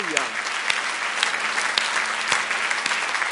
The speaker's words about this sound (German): Geben wir dem Herrn nochmals einen Applaus.